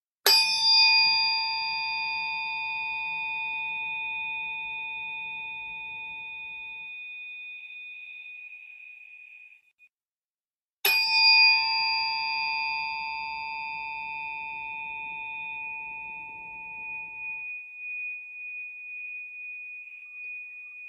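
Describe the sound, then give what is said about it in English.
A tuning fork is struck twice, about ten seconds apart, each strike ringing out in a bright, steady metallic tone that slowly fades. The ringing is clear, with no voices. “It, but it makes a lot of weird sounds, so it might sound jarring or unpleasant to listeners, um, but it will it will probably harmonize.”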